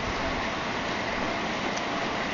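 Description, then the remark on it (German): Heavy rain drums steadily on a tin roof during a light thunderstorm, heard from beneath the roof: a dense, unbroken roar of patter that stays at an even loudness throughout, with no voices. “Ich weiß nicht, wie viel, wahrscheinlich hört man sehr viel Regen, weil ich halt unter so einem scheiß Blechdach stehe.”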